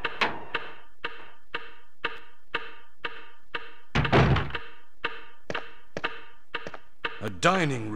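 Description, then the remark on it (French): A video game door-opening sound effect: a steady run of evenly spaced mechanical thunks, a heavier booming thud midway, then a brief warbling tone near the end. “c'est ça, avec deux heures d'ouverture de porte dedans.”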